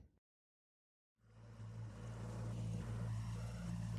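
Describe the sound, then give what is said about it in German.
After a brief silence, a small boat motor starts up and chugs steadily, a loud, low, continuous rumble with a regular pulsing rhythm, no voices, as the boat manoeuvres through narrow canals late in the afternoon. “Monoton tuckerte der Motor des Kleinbootes vor sich hin”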